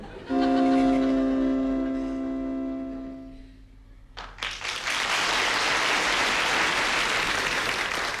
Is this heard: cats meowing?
no